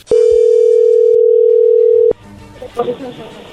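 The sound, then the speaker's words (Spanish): A steady, loud telephone dial tone holds for about two seconds as a call is being placed, then cuts off abruptly, followed by faint line noise and a voice answering. “Bueno, le voy a llamar el lobo a ver qué pasa, ahí se está marcando, no hagas ruido.”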